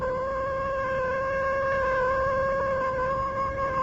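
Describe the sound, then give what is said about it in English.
A cat lets out one long, drawn-out meow that holds a steady pitch for several seconds, loud, with no voices around it. “I told you it was a lucky cat.”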